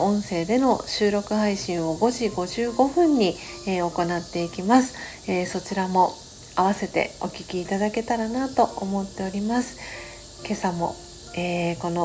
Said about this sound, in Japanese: ビシュラムのあります神奈川県横浜市、えー、お家の外ではセミさんが元気よく鳴いております